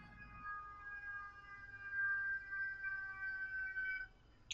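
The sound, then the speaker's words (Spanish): A police patrol car siren outside holds a steady, piercing tone for several seconds at moderate volume, with no one talking, before it cuts off into a brief burst of noise at the end. “Güey, ya me mandaron traer a la patrulla, güey.”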